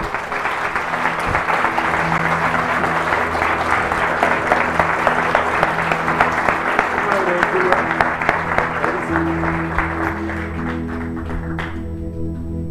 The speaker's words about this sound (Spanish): Creo que muy merecido ese aplauso, ¿verdad?